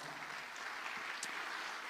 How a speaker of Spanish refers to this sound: Si usted lo cree, le da palmas fuerte al Señor.